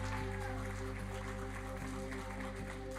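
A church audience applauding steadily for the worship team, a dense continuous patter of many hands, with sustained keyboard or organ chords ringing underneath throughout.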